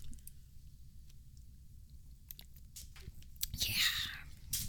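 Quiet sipping with small wet mouth clicks as people drink after a toast, building to a louder slurping sip near the end, over a faint low rumble and no clear talking.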